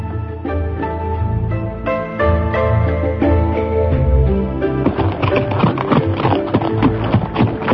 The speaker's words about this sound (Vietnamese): đoàn dự cùng với ngữ yên cưỡi chung một con ngựa phóng qua không biết bao nhiêu vườn dâu